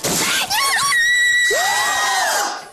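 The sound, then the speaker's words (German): A loud, high-pitched scream of joy at a Zalando parcel being delivered rings out for about two and a half seconds, its pitch swooping up and down before trailing off, with no talking around it. “den Schrei hat jeder schon mal gemacht, ich auch.”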